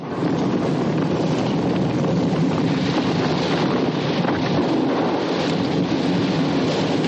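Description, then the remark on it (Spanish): Huge rocks from a mountain blown apart by explosions and crumbling crash down into the sea in a loud, sustained roar of tumbling stone and churning water, a dense rumbling wash that holds steady throughout with no voices. “La montaña se desmorona y grandes trozos de roca caen al mar.”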